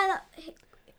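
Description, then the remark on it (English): A voiced yawn from a very tired person: a loud, drawn-out tone that slides downward in pitch and fades within a fraction of a second, followed by faint, soft breathy murmurs. “Sorry, I'm yawning.”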